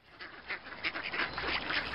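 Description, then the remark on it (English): Baby ducks at a duck pond in spring quack repeatedly in quick, overlapping bursts, a busy chorus of high little calls with no one talking. “While the weather might seem in two minds about it, spring has officially sprung and brought with it the little quacking of baby ducks.”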